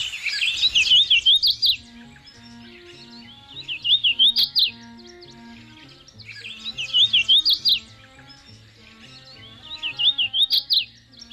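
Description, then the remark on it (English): A hooded warbler (Setophaga citrina) sings four bright, slurred whistled phrases, each rising to an emphatic ending, repeated about every three seconds, clear over a soft, low tonal background. “It's today's Talking Birds featured feathered friend, Setophaga citrina, the hooded warbler.”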